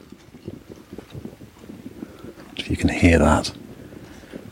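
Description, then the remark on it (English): Rapid pattering of heavy rain drumming on a jacket hood while walking in a field, a steady dense tapping that runs the whole time while a voice briefly speaks over it in the middle. “I think that's the sound of it on my hood.”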